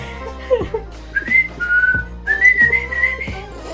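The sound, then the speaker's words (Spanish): A person whistles a short, lilting tune, the whistle that started the Walt Disney company: several bright sustained notes rising and falling in a simple melody, with faint breathy thumps between phrases and no talking. “Pero bueno, ese silbidito, damas y caballeros, es el que le dio inicio a la compañía de Walt Disney.”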